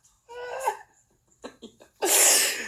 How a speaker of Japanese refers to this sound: 泣いてるやん。いやほんま、いやもう泣くよね、でもこれは。ほんまにね。